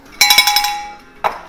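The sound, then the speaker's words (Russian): A small bell rings in a quick run of about five bright, high strikes, then rings out with a fading tone before one more soft ding at the end. “Это звук колокольчика, который будет означать, что мы переходим к следующей теме.”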